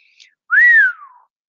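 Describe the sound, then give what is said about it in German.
A man whistles once, loud, a quick upward swoop that slides slowly down in pitch, preceded by a faint short chirp. No other sounds or voices. “pfiff James de Ferris, als sie verschwunden war.”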